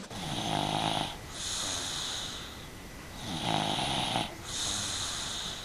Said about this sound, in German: so gut, dass die ersten Kleinkinder schon nach zehn Minuten friedlich schnarchen und sogar die größeren bei leise säuselnder Hintergrundmusik nur noch flüstern.